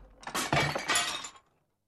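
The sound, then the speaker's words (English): A burst of thrown pots and jars smashing, several crashes tumbling together over about a second, loud, then cutting off to silence. “Suddenly, the cook started to throw things at the Duchess and the baby.”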